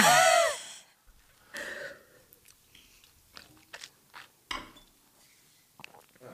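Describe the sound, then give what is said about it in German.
One loud, airy slurp of liquid through the lips, followed by softer wet mouth smacks and small clicks scattered over a few quiet seconds, with no talking. “Ein bisschen schlürfen”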